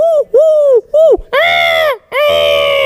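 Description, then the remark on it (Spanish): A person's voice imitates the cooing of a Eurasian collared dove at an ornithology fair: three short, arching hoots followed by two longer, louder and more strained notes, with no other sounds. “Por ejemplo, la tórtola común arrullaría así ¿Y la turca?”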